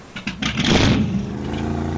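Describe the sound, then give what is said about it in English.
A Yamaha outboard boat motor cranks with a couple of quick catches, then fires up and revs loudly into a steady, rumbling idle, with no talking. “Fun days on the bay are back and my Yamaha outboard runs better than ever.”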